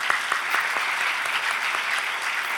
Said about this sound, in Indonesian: Mana tepuk tangannya?